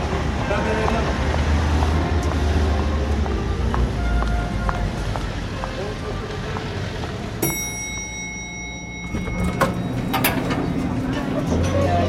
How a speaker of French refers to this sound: On est sur la terrasse de la quinzaine des réalisateurs à Cannes. Il y a une bruit de sirène euh, effroyable.